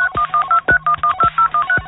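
A rapid run of about eleven telephone keypad dialing beeps, short dual-tone bursts in a quick, steady rhythm with faint key clicks between them, loud, with no talking.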